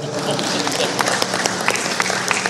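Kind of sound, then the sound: crowd, audience clapping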